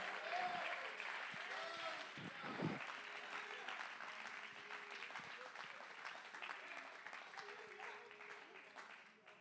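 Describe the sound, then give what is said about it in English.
An audience claps their hands in praise during a morning worship service, a dense, continuous wash of applause with a few voices rising over it, holding at an even loudness for the whole stretch. “Come on, clap your hands a little bit longer this morning.”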